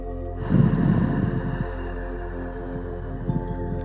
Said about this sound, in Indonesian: Kita sama-sama tarik nafas yang panjang dan dalam. Tarik nafas lewat hidung. Buang lewat mulut.